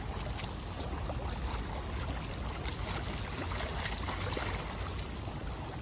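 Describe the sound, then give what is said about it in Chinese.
Water of the Tamsui River at high tide lapping against small, not very large, protruding stones or the river bank walls: a dense, steady wash of splashing and trickling with many tiny overlapping clicks and splashes, fairly loud and unbroken, with no voices. “想象那个画面，一定就是河水啊打在旁边有一些呃凸起的小石头，那个石石头不会太大，或者旁边呃墙壁吼，就是河岸旁边墙壁的那种声音所传出来的音的效果，然后才有办法这样一直绵密的”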